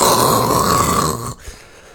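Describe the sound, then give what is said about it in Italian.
A voice imitates the crackly hiss of a detuned radio alarm, a steady, fairly loud burst of buzzing noise lasting just over a second before cutting off abruptly into near silence. “l'unica cosa che riusciva a svegliarlo la mattina era una radiosveglia desintonizzata che faceva tipo”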